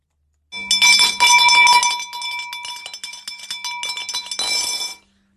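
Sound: spoon stirring and clinking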